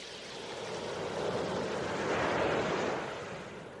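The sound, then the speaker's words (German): A steady wash of ocean waves, a broad hissing roar that slowly builds to a peak and then eases off again as the swell rolls through. No voices. “Das ist Wellengang.”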